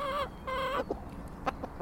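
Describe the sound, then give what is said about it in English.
Chickens cluck on a small farm in Gloucestershire, England, in the early morning: two drawn-out, tuneful calls followed by a few short, sharp clucks over a quiet outdoor background. “You might hear there's a road in the distance, um, but mostly there are chickens, a couple of pigs, some goats, and uh, a horse too”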